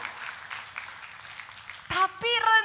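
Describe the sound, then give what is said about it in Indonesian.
An audience applauds with a dense, steady patter of clapping, then loud raised voices burst in over the applause near the end. “Kalau mau tepuk tangan, tepuk tangannya yang paling meriah”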